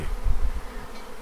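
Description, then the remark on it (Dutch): A dense, continuous buzz of a swarm of roughly 25,000 bees being caught in a garden in fine weather, steady, with a low rumbling drone that swells slightly early on before settling; no voices. “Zijn dat nou die 150.000 bijen?”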